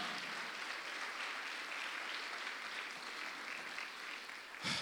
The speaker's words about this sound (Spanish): Dale palmas al Señor, hermano.